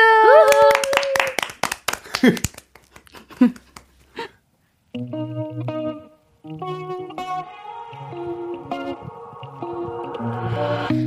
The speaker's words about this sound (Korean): 박수! 박수!